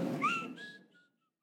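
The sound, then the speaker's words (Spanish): A short, sharp whistle rises and then holds a steady tone before trailing off, like someone whistling to call a person over; brief, with no talking. “¿A cuántos les hablaban por un chiflido?”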